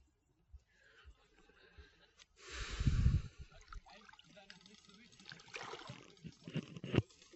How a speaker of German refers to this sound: Basti ist jetzt gerade reingegangen und äh, direkt in den mit bis zu den Knien im Wasser